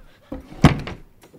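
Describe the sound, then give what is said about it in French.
A door bangs shut with a single heavy thud, preceded by a softer knock and followed by a brief rattling afterglow, with no one talking. “et encore un bruit, et tu regretteras d'être venu au monde, mon garçon. Et arrange cette porte”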